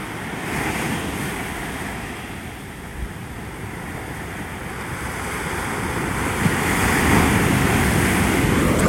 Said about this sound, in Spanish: El mar está aquí. La vibra está aquí. Las nubes se ven cabronas. El cielo. Está la playa como la pueden escuchar. Escucha la playita ahí de nuevo.